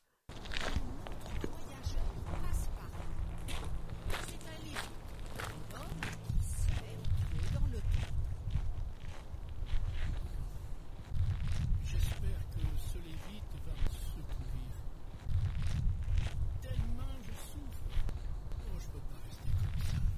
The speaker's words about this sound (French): Le trottinement d'un âne attire l'attention du blessé.